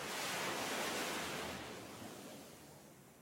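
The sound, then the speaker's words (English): Ocean waves break on the shore in a broad, hissing wash of surf that swells early and then slowly recedes, steady with no voices. “In this perfect little universe, there's only me, him, and the rising orchestra of breaking waves.”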